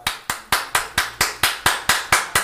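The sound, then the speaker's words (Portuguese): Someone claps their hands at a house gate to call the residents, in a quick, steady rhythm, about eleven sharp, loud claps evenly spaced with no pauses, each ending in a short ring. No voices are heard. “Vai bater palma aí no, na, na, na sua cancela,”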